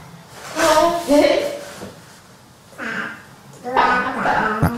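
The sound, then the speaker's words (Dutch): An adult woman's voice imitates the babbling of a six-month-old baby in short, high, sing-song bursts with pitch swoops, separated by brief pauses, clear. “ja, eh, een volwassen vrouw probeert een eh, babytje van eh, een half jaar te imiteren.”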